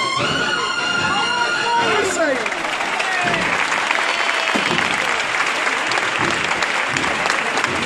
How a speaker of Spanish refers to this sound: Aplausos en la calle Adriano, el misterio de la Hermandad de la Estrella, Jesús de las Penas, que se ha parado delante de la piedad del baratillo.